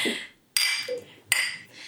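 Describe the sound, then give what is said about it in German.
Glasses of water clinking together in a toast: two bright, ringing clinks about three-quarters of a second apart, each with a sharp strike and a shimmering high tone that fades, with no voices. “Ähm, Cheers. Cheers.”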